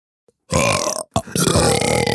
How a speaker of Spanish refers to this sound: Mira, fue doble eructo, güey. We've been blessed with a double burp. Doble, doble eructo, güey.